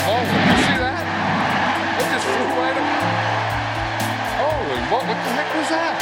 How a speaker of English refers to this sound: Oh, here comes some airplane.